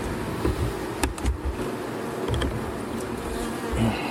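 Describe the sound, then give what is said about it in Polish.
A dense, steady hum of many honeybees buzzing together at an open hive, continuous, with a few brief clicks and taps scattered through it and no voices. “tu mówimy o pszczole miodnej.”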